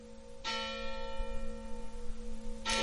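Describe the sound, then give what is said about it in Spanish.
A church bell strikes twice, about two seconds apart, each stroke leaving a long, resonant hum that rings on steadily between them. No voices. “Estamos hablando de mini terremotos producidos por esas campanadas.”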